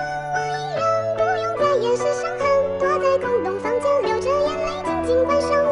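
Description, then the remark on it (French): A young girl sings a smooth, wavering melody over steady instrumental backing with a stepping bass line, the music continuous and fairly loud throughout. “Et je l'entends encore chanter.”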